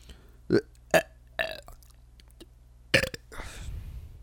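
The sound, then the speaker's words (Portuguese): A series of loud burps: two short ones in quick succession, a longer drawn-out belch, then another burp trailing into a rough, breathy rumble. “Arrotos fodas.”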